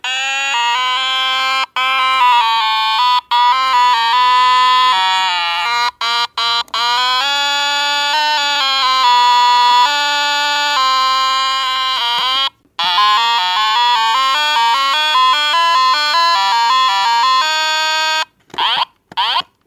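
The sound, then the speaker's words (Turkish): A child's handheld Tetris-style toy, a version with many games and low batteries, plays a loud, buzzy electronic melody of rapidly stepping beeps. It breaks briefly once midway and ends with a few short sweeping chirps. “bizim kızın bir oyuncağı. Daha doğrusu eskiden Tetris'ler vardı ya.”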